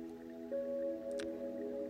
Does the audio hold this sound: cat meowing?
no